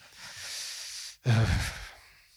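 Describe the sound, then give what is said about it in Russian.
A voice imitates the heavy, monstrous breathing of creatures in a film: a long, raspy inhale, a brief catch, then a louder, growling exhale that fades out, fairly loud. “Помнишь, как они да, дышат?”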